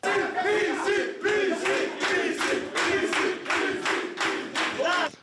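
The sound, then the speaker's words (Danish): A group of players cheer and chant loudly in rhythmic bursts in a locker room at Trapsandsborg, their voices booming and echoing, continuous for several seconds. “Og der tror jeg, at omklædningsrummet runger, runger cirka lige så meget, som det gjorde i Trapsandsborg, som vi lige hørte.”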